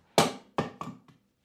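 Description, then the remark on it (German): A bottle drops onto a hard floor and bounces four times, each impact sharper and shorter than the last, the final bounce faint, with quick accelerating rhythm and no talking. “Will ich gerade die Flasche runtergefallen, für ja.”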